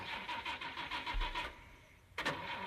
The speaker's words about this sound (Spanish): Creo que es el momento de arrancar motores.